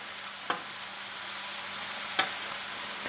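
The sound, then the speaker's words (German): Chicken pieces sizzle steadily in their sauce in a frying pan, a constant hissing crackle, with two brief clinks or scrapes as the pieces are turned with two forks. No one speaks. “Kannst du mit den zwei Gabeln noch geschwind einmal die Hühnerteile drinnen umdrehen? Gerne. In ihrer Sauce.”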